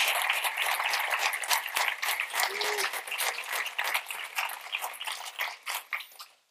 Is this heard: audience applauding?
yes